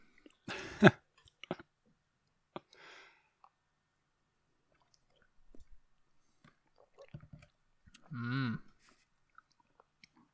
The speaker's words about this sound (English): I've had a couple sips.